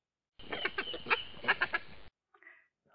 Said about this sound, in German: Hören wir doch mal rein, wie die Fee mit ihren Jungen kommuniziert und hier, wie sich inniger Kontakt zwischen Dachsen anhört.